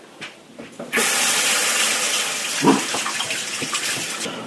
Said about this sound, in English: Okay, I'm going to uh, rinse my hands.